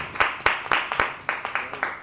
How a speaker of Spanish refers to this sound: Venga, échale un, aplauso. Es un pedazo de artista. Sí, señor.